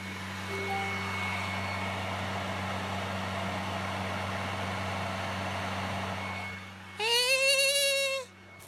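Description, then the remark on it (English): A PlayStation console running, heard from about five feet away, giving off a steady whirring hum with a low droning undertone throughout, followed near the end by a brief, wavering harmonic tone that rises in pitch. No one speaks. “I don't know, uh, five feet away from the PlayStation, if you can hear that noise.”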